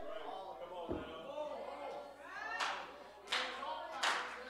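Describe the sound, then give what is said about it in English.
A few sharp hand claps of praise ring out in separate bursts over raised, cheering voices, the claps landing roughly every second toward the end. “Hey, give him a hand clap of praise on that one.”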